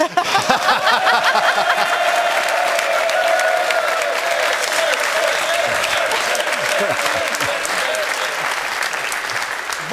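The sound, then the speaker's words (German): Sustained, loud applause from a studio audience in an applause contest, a dense wash of clapping that holds steady for the full stretch with a few scattered cheers and laughs mixed in. “hat den Applaus, das Applausduell gewonnen.”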